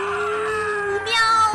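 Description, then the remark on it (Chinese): A single drawn-out, high-pitched cat yowl, voiced by a person imitating a cat crying out as its tail is cut with a knife. It holds steady, then rises sharply and grows louder toward the end before breaking off. “喵！猫先生顿时惨叫起来，他的尾巴渗出了鲜血。”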